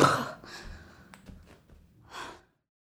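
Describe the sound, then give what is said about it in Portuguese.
Heavy, breathy panting after about five half-hearted push-ups on a living room floor: a loud gasping exhale at the start, softer ragged breaths, then another strong exhale near the end, with no talking. “com o som da minha própria respiração ofegante depois de fazer umas cinco flexões meia-boca no chão da sala, nos intervalos do trabalho.”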